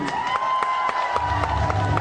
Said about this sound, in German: Begrüßt nun mit einem tosenden Applaus Stefan Buckelmann!